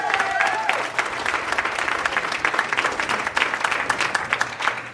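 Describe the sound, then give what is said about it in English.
A crowd breaks into sustained, dense applause for a birthday, with scattered cheers and a brief whistle near the start, the clapping steady and fairly loud throughout the few seconds. “Let's hear it for you”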